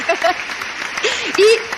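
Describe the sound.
A crowd applauds steadily for a couple of seconds, a dense wash of clapping, with a few voices calling out and cheering over the top.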